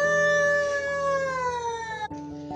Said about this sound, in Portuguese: Miau! Disse o gato.